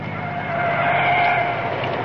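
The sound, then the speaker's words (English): A car with its headlights on approaches along the main road to town. Its engine hums steadily, the droning noise swelling slightly louder and then holding, with no voices present. “Oh, there's a car coming. I see headlights.”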